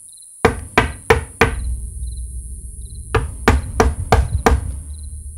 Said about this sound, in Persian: در همین بهبه ها و درگیری ها ناگهان صدای درب به هوا برخاست